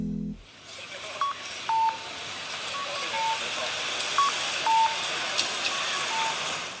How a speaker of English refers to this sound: We are hearing Osaka's traffic lights for streets accessibility, we're giving it a 5 out of 5 stars.